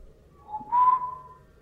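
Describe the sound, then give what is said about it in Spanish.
A single short whistle from a person arriving home, rising briefly and then holding a bright steady tone for about a second, clear against a quiet background. “Chiflé como cada que llegaba.”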